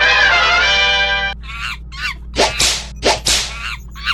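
A loud, harmonic honking squawk for about a second, then several sharp whooshing cracks in quick pairs from the "whip of truth", which a monkey is using to beat someone at the Palace of Justice, with no talking.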